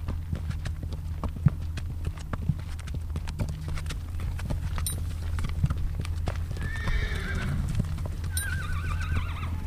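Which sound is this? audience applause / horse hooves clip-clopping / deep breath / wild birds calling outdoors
horse hooves clip-clopping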